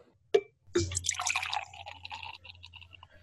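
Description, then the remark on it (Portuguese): A single sharp click, then beer poured into a glass in a steady, frothy gush that fizzes and crackles, gradually thinning into faint trickles and bubbling. No one speaks. “Ela parece, assim, o, pelo barulho dela sendo servida no copo, parece meio bem cremosa, né?”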